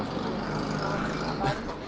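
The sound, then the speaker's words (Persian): A motorcycle engine drones steadily outside, a continuous low rumble with a slight swell near the end, partly blended with muffled voices. “صدا موتور خنده داره که یعنی صدایی که از موتور خنده داره به گوشم”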